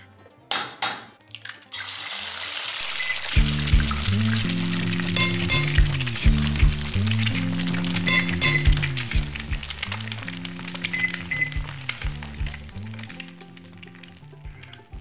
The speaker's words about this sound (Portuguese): Então vamos lá. Vinheta da receita da semana. Deixa eu ver onde será que ela tá.